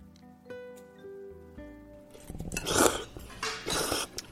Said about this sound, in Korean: 와 우동 국물 너무 좋다. 어, 후루룩 잘 마시는구나.